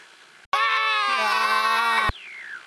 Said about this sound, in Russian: И да, да, минуту тогда, что, минуту крика, да? Не молчание, не молчание.